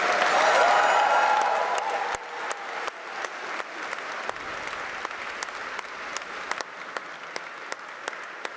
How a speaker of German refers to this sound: ich bitte einmal nach vorne mit einem tosenden Applaus